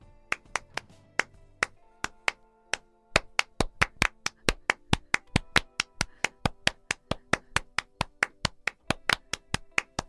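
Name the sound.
hand clapping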